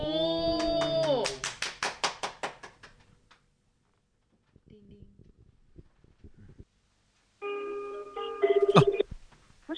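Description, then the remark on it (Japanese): An outgoing phone call to the producer of No Matter Board: its ringing tone sounds toward the end, a steady electronic buzz with a brief chirp, after a short jingle, a burst of rapid clicks and a quiet pause. “調子に乗ってかけてみたいと思います。これからお電話するのは、ノーマターボードのプロデューサー”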